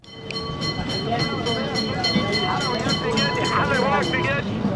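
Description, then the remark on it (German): Trams rattle steadily over cobblestones in the station district of Alexandria, Egypt: small round carriages with a constant rumbling clatter and ringing metallic tones, fairly loud, while indistinct voices murmur in the background. “Klingelnd rattern Straßenbahnen über Kopfsteinpflaster.”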